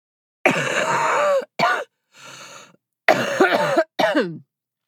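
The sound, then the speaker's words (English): A person ill with COVID coughs in harsh, groaning bursts: a long rasping cough, a short one, a wheezy intake of breath, then two more strained coughs, fairly loud. “that is how I sound when I cough.”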